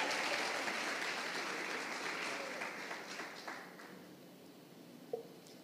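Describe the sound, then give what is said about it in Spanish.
An audience claps together for the Lord in a dense, steady burst of applause that gradually thins and fades over several seconds, leaving a few scattered claps near the end. “Dale palmas al Señor.”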